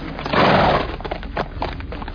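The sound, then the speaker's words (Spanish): A horse whinnies loudly at the start, followed by a quick, uneven run of hoofbeats thudding over the ground, like small chestnut desert horses ridden by Berber horsemen galloping past. “Cabalgaban a lomos de sus alazanes, los pequeños caballos del desierto.”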